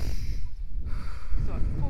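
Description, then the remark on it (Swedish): A forceful breath pushed out by a person holding a ladder while climbing down into water, a rough, airy rush lasting most of the moment, with a slight snort-like edge and low rumbling noise underneath. “Får jag höra dig andas ut?”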